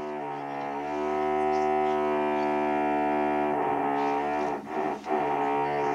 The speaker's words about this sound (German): Junge, meine Nachbarn bohren seit drei Jahren durchgängig.